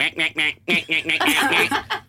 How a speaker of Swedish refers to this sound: Alla andra fåglar har jättefina sångröster. Låter de. Ankan.